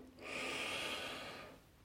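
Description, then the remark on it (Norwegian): A long, steady inhalation drawn in through the nose during a guided yoga breathing exercise, breathing in before a breath hold (kumbhaka); a soft hissing airflow that swells quickly and holds for over a second before tapering off. No talking. “Pust inn.”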